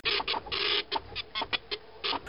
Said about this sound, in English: Hold on, let me get let me get the printer going. I got the dot matrix. Let me fire it up.